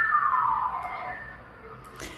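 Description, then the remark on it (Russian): An ambulance siren wails outside a window, its tone sliding steadily downward as it passes and fades away, heard alone with no voices. “Я слышу, кажется, у вас за окном сейчас скорая помощь проехала.”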